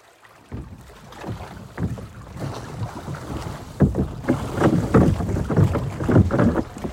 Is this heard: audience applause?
no